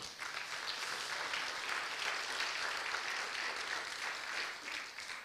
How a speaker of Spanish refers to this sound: Amén, dale un aplauso al Señor.